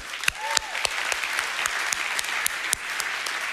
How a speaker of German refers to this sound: Aber äh, genau, von dem her lass uns doch auch Ice ICF Kids einfach einen Applaus geben. So cool!